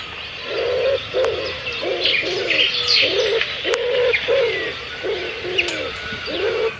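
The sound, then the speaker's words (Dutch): A wood pigeon coos in a steady, rhythmic series of soft, hollow hoots, clear, while smaller birds chirp and twitter faintly in the background. “Maar hier hebben we bijvoorbeeld het geluid van de houtduif.”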